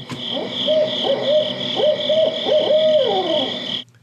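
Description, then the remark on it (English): An owl gives its rhythmic 'who cooks for you, who cooks for you all' call, a series of hooting notes rising and falling, ending with a drawn-out final hoot, heard clearly over a steady background hum of insects or ambient noise. “you were talking about those mnemonics that we put to those owls, and this one I love is that that who cooks for you? Who cooks for you all?”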